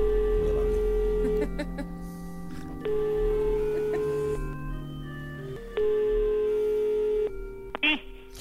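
A steady electronic telephone ringing tone drones on for several seconds as a call is placed, shifting pitch in a few long held steps, clear as if through a handset, ending in a brief click.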